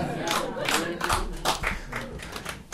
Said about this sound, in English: Your applause on this is very disappointing. You don't have to cheer. You don't have to cheer for shit I say.